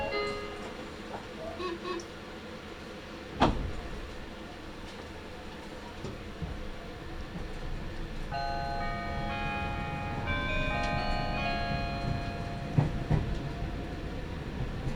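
A Nagoya Railroad (Meitetsu) Toyokawa Line limited express train running from Toyokawa-inari toward Kō, Japan, rolling along rails with a steady low rumble and occasional sharp clanks from the track, joined midway by a rising, whining motor tone that lingers over the clatter.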